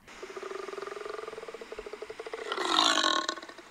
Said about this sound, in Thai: นั่นจึงเป็นที่มาของชื่อสิงโตทะเลค่ะ และบางชนิดนะคะ สามารถคำรามได้ด้วยค่ะ